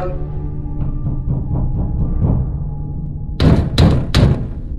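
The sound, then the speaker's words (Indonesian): Someone pounds on a door: a run of quicker, muffled knocks gives way to three loud, heavy bangs in close succession, booming, with no voices. “Jangan isem dong pulang sono jangan iseng gue bilang gitu kan eh yang tadi cuma ngetok-ngetok sekarang gedor-gedor”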